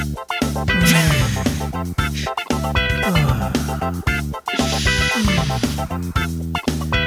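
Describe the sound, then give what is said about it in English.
A short, upbeat theme song for the One Peach Each segment plays loud, with full instrumentation, a steady rhythmic beat and bright melodic lines, running continuously with no one talking over it. “Please play the theme song for one peach each.”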